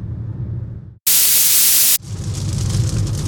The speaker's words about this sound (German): Jetzt regnet es übrigens wieder. Und äh, so ein bisschen scheint aber auch die Sonne durch die Wolken durch.